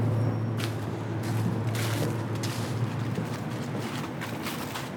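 Quick footsteps thud and scuff at a brisk, uneven pace as a man in work clothes walks up the boat landing stage at Rolandseck, set against a steady low mechanical rumble that hums underneath throughout.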